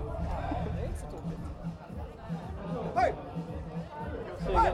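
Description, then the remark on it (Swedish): A steady murmur of chatter from a seated audience of quite a few people, many overlapping voices blending into a dense babble, with a few brief louder exclamations rising above the crowd noise. “det är lite mer folk Publiken sitter här”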